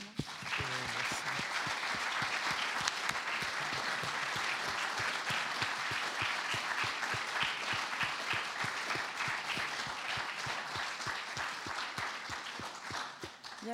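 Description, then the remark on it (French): An audience applauds steadily for about fourteen seconds, a dense, even wash of many hands clapping at a consistent loudness, with no voices standing out. “On va encore vous applaudir très vite.”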